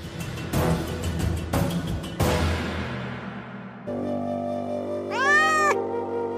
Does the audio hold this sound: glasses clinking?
no